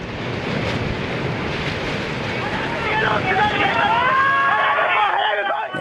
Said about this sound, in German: Nicht einmal eine halbe Stunde später rollen Tsunami-Flutwellen auf die Pazifikküste zu. Zwar wurde davor gewarnt, doch oft war die Vorhersage für die Höhe der Flutwelle viel zu niedrig angegeben.